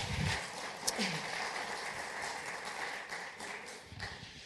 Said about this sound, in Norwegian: Vi kan gi dem en applaus. Det er jo helt fantastisk. Helt improvisert.